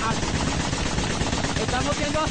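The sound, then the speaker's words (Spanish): Rapid, continuous bursts of gunfire crackle through a dense, loud, chaotic scene during armed combat, with voices shouting underneath the sustained shooting, one saying in Spanish that they are being attacked with artillery. “Estamos siendo atacados con, con artillería para allá.”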